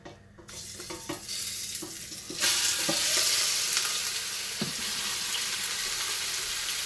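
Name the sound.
meat sizzling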